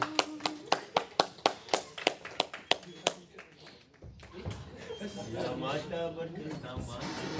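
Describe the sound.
A short round of applause made of about ten sharp, evenly spaced claps in a steady rhythm, fading out before voices begin talking.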